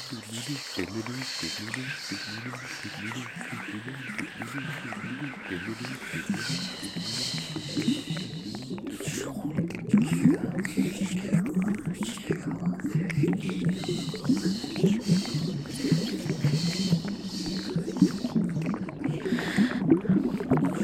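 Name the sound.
bubbling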